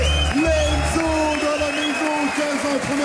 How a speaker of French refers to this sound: Ok, faites du bruit pour lui s'il vous plaît.